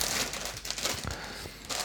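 Crinkling plastic packaging of a new pack of Mario Chicken food being handled and opened, a steady crackly rustle with a few sharper crinkles, moderately loud and without talk.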